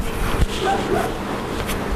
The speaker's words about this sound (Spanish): Y voy a cerrar la ventana porque mi querido vecino perro Tango está ladrando. Un momentito. No vamos a. No pues se puede hacer callar a los perros cuando se ponen a ladrar, pues nada. Cerramos la ventanita